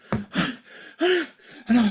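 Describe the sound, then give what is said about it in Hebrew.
A voice imitates heavy panting, with three or four loud, breathy bursts of uneven length and short quiet gaps between them, with no talk. “כן, אתה באיזשהו מקום מתנשף, כאילו עשית, כאילו הרצת את זה”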